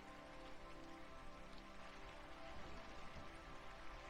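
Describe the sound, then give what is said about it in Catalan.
Light rain falls in a steady, soft patter of drops on a surface, gradually easing off after heavy rain in a thunderstorm, a gentle wash of sound with no voices and no sharp interruptions. “Encara es veuen llamps i encara es senten trons. Però la pluja va parant, poc a poc.”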